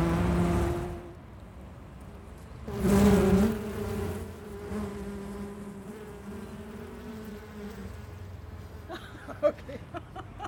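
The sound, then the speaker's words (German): A steady, droning hum of many honeybees buzzing at an open hive, with a louder swell near the start and a few soft clicks and knocks toward the end; no one speaks. “Und das hört sich gut an. Ich kann nämlich gleichzeitig aufnehmen.”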